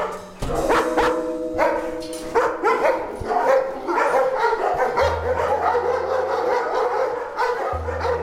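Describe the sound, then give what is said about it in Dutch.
Many dogs at the Dierenbescherming Mechelen animal shelter bark, yip and whine at once in a loud, echoing chorus that continues throughout, with overlapping barks and a steady low hum underneath. “Ik ga u meenemen waar dat momenteel onze asieldieren zitten.”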